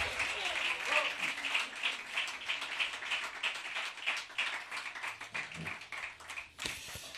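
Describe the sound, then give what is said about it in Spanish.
A crowd applauds a song steadily, a dense crackle of many overlapping claps that holds for several seconds, with a brief louder burst near the end and faint voices mixed in. “Un aplauso al este pedazo de tema.”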